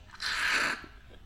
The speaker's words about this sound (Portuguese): No final, eu não sobrou água quente, então no final eu dou uma chupadinha ali para terminar a água que está agora escorrendo e assentando entre as, as marinando na, na, na erva, né?